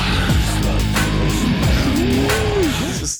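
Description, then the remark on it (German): A few seconds of an original horror-metal song with a dark Tex-Mex flavor, loud and dense, its heavy distorted wall of sound cut by wailing, sliding pitch bends that swoop up and down. No one speaks. “und alle in diesem so Tex-Mex-Metal-Horror-Stil”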